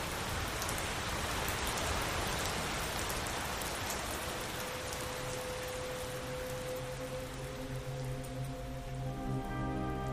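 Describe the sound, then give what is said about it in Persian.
Steady rainfall with countless raindrops pattering continuously on a surface, fairly loud, no voices; faint sustained tones rise beneath the rain in the second half. “سرمو گذاشتم روی میز چوبی چشامو بستم و چند دقیقه فقط به صدای قطره بارون گوش دادم”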